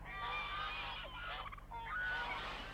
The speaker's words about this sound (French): Les autres oies s'approchèrent alors et le caressèrent du bec. Elles caquetaient et bavardaient et le félicitaient.